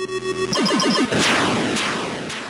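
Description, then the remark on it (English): A retro video game explosion from the Atari game Yars' Revenge, said to have the first full-screen explosion in video games: a buzzy electronic tone, four quick pulsing blips, then a loud, harsh burst of crackling noise that lingers and slowly fades. “He wrote Yar's Revenge, which he said has the first full screen explosion in video games.”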